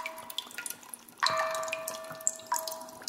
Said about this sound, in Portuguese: Esse instrumento ancestral japonês é formado por um grande jarro enterrado no solo e um dispositivo de bambu que pinga água aos poucos. O som da gota caindo na cavidade do jarro produz uma reverberação única.